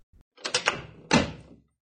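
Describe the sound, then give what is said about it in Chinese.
A door opens as a mother comes in late at night: a soft knock-like thud, then a quick series of latch clicks and rattles, followed by a louder scraping swing that fades out after about a second. “没有，妈，你可以开门。”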